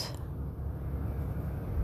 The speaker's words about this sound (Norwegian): Så her hører jeg lyder fra veien, vinden Hører en båt.